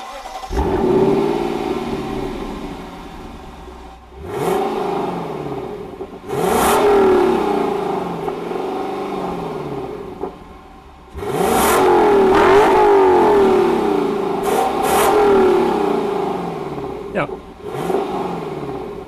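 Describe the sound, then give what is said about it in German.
The V8 engine of a Lexus LC500 sports car revs hard through its tailpipes in several loud bursts, rising in pitch and dropping back between blips, with sharp crackles as the throttle snaps shut. No one speaks. “wir haben natürlich schon ein bisschen vor 8 sound erwartet, aber was da wirklich aus den Endrohren kommt beim Lexus LC500”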